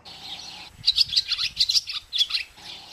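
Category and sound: bird, birds chirping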